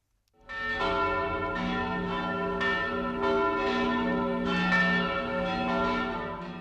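Church bells ring out loudly and continuously, their overlapping peals struck in a steady, repeating rhythm with rich, ringing tones that hang in the air. No voices are heard.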